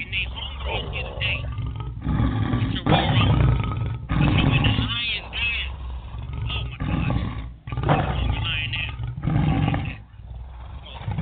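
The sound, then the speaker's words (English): A crowd of people roars loudly like lions, the voices swelling together in several long surging bursts with brief dips between, filling the space with a dense, rumbling din. “Go ahead now. I want you to roar.”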